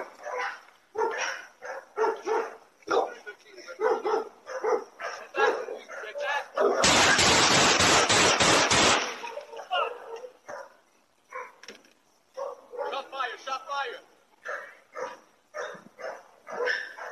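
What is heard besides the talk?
dog barking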